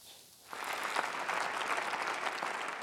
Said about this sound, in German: Standing Ovations für Joachim Gauck, den abtretenden 11. Bundespräsidenten.